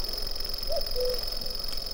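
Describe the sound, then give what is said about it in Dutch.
A cuckoo gives one soft two-note call, the second note slightly lower, in the background behind the steady, high, drill-like buzzing song of a grasshopper and faint outdoor background noise. “Op achtergrond u ook de koekoek.”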